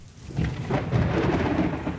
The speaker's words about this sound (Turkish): Uzakta bir yerlere yıldırım düştü. Gökyüzü ve deniz kısacık bir an aydınlandı.